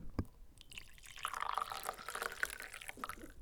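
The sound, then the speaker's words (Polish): Coffee pours steadily into a cup for about three seconds, moderately loud, its gurgling pitch shifting as it fills, after a brief knock at the start. “O, teraz nalewam kawy.”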